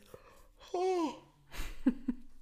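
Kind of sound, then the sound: human body sound, yawn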